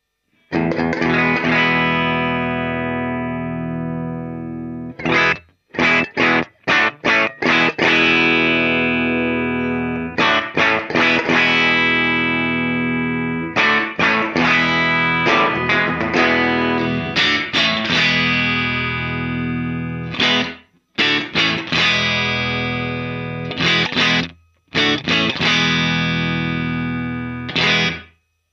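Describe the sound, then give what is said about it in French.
Distorted electric guitar played through an amp with its room reverb setting turned all the way up: long ringing chords alternate with bursts of short, choppy stabs, loud and steady with no talking. “Tiens, je vais, je vais passer en mode complètement seco et vous faire mettre le réglage à fond de, de room pour que vous entendiez bien ça.”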